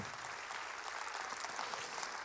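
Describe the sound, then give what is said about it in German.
A church audience applauds for Jesus steadily, a dense wash of many hands clapping at an even level throughout, with no voices rising above it. “Lass uns diesem Jesus einen Applaus geben.”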